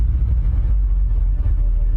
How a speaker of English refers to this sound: Uh, there's a promotional video for it of like to show you the performance of the Model 9. And this is so embarrassing because as uh, all they did was did some drone footage of the car doing donuts in the snow.